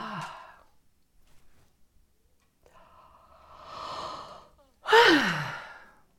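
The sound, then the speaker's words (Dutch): A slow, deep breath drawn in with the jaw dropped open, followed by a loud, open-mouthed exhale that sweeps downward like a sigh or yawn, with no talking. “Je ademt tegelijkertijd in en je ademt hoorbaar uit.”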